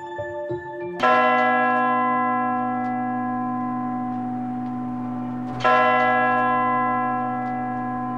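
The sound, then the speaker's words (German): A tower clock bell strikes the hour, two strokes about four and a half seconds apart, each loud resonant stroke ringing with rich harmonics and a long slowly fading hum. Faint chiming precedes the first stroke. “Die Schläge der Turmuhr sind in Europa seit dem ausgehenden Mittelalter zu hören.”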